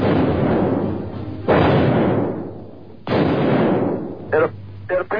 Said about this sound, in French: Au même moment, un journaliste d'une radio locale entend et enregistre lui aussi les coups de feu qui vont tuer un des présidents les plus célèbres de l'histoire des États-Unis. C'était il y a 40 ans à un jour près, le 22 novembre 1963.